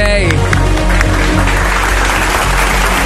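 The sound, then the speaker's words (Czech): A burst of loud, steady applause from a group in a studio, given for a listener's message, with dense overlapping clapping filling the whole few seconds and a brief tonal sound at the very start. “se zaslouží potlesk samozřejmě.”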